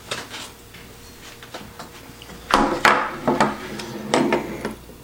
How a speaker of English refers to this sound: All right, the ice cubes have been sitting in the freezer for about three days now, so definitely ready to go. I'm gonna take them out here.